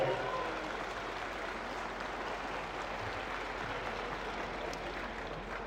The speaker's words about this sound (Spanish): Y de verdad, pues un aplauso para nuestro gobernador Mauricio Curi, porque él sí nos voltea a ver.